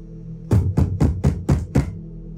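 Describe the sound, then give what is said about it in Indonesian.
Six loud, heavy pounding knocks on a bedroom door in quick, steady succession, each a deep booming thud, with no voices. “Pintu kamarku dipukul dengan keras dan aku hanya bisa diam dan memejamkan mata.”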